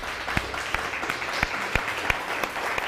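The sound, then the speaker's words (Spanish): Audience applause for all the nations: a steady, dense patter of many hands clapping, with a few sharper individual claps popping out at a fairly regular pace. Moderately loud, with no voices. “Así que un fuerte aplauso a todas las naciones.”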